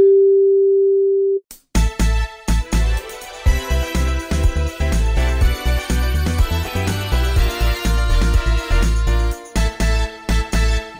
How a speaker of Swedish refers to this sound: Vi kan tyvärr inte ta emot ditt samtal just nu, men lämna ett meddelande efter pipet så hör vi av oss.